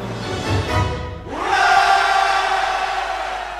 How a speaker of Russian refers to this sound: Вот прямо как э, в нашем джингле э, кричат люди «Ура!»